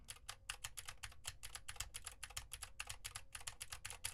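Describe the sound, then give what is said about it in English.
Rapid, steady typing on a mechanical keyboard with Gateron blue clicky switches, each keystroke a sharp bright click in quick succession, clear with no voices, typed to test how much keyboard noise a microphone picks up. “I'm typing on a keyboard with Gateron blue switches to see how much of my voice versus how much of the keyboard it picks up.”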